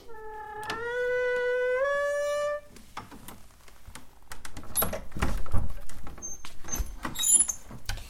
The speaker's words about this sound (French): Un bruit de la porte. Et je referme.